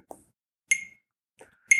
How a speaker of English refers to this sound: if you get a metronome and put it at like sixty BPM. Okay. Like yeah do you happen to have one on your phone? I do.